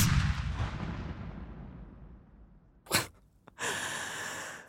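Following a firing command, a booming gunshot rings out and fades into a long rumbling decay, followed by a sharp crack and then a hissy, noisy burst, like a staged gunfire effect with no talking.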